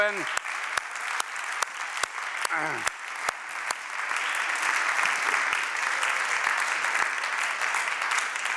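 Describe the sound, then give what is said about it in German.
An audience in a church applauds steadily during a church service, a dense wash of many hands clapping that swells slightly after a few seconds, with a few sharper individual claps standing out near the start. “Geben wir ihnen mal einen fetten Applaus.”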